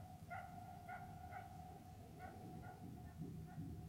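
A jackal barks in a run of short, high yelps, repeated every half second or so, fairly faint and set against a low, steady rumble.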